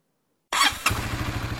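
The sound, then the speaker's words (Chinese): The single-cylinder engine of a newly bought silver motorcycle cranks and catches with a sharp burst, then settles into a steady, low, rhythmic putter of evenly spaced firing pulses. “我发动了引擎，于是摩托车发出单气缸的清脆而又好听的声音。”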